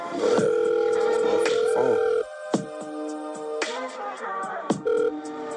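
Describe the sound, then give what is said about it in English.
A phone call rings out as a steady electronic ringback tone for about two seconds, then drops to quieter tones and clicks before a short tone returns, like a call being sent to voicemail. “Yo, you sending me the voicemail and shit ain't gonna solve nothing.”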